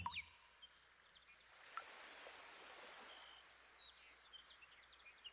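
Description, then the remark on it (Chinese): A steady, soft rush of flowing water fills the background while a few brief, high bird chirps break through now and then. The whole scene is quiet, with no voices. “蔚蓝的天空，微风轻轻的吹过，在微风的轻抚中，你静静的听着鸟儿愉悦的欢唱。”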